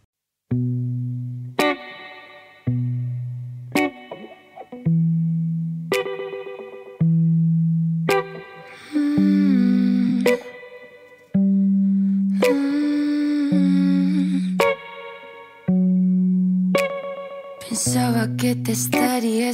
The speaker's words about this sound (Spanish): Vamos a escuchar esta maravillosa canción. Vamos.